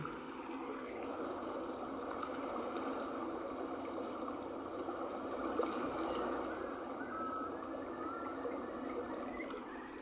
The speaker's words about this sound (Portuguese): Agora, vamos fechar os olhos e nos imaginar com esse barulhinho ao fundo do mar, com essas ondas batendo, que você está no meio de um oceano, num barco, sozinho.